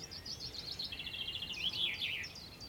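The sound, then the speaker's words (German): A chaffinch sings a competition song variant: a rapid series of bright, descending trilled phrases ending in a flourish, clear over a low, steady background hiss. “Zwei bis drei Gesänge lernt ein junger Fink. Die singt er dann sein ganzes Leben lang.”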